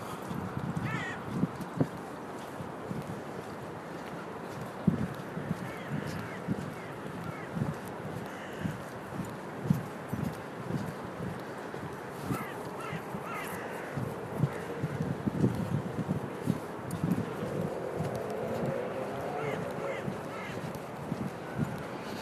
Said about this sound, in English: Which is nice birdies everywhere.